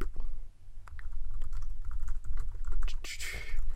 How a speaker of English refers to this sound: excitement as I uh, edit the show notes. Typing, I'm typing, I'm so, clicking.